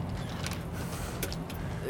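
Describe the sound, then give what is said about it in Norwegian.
A door creaks and clunks open onto the roof of the Oslo City shopping centre in Oslo, with a few short scraping bursts over a steady low rumble of outdoor air and traffic. “Og her kommer vi ut på den siste døren, og så er vi ute på taket på Oslo City i Oslo.”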